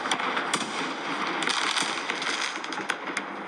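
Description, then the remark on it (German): Fireworks in a fireworks video go off in a dense, continuous barrage, with sharp crackling bursts and several louder pops standing out over a steady roar of explosions. No one speaks. “Und das aktuelle Feuerwerksvideo gerade mal, also, oder schon 254 Aufrufe.”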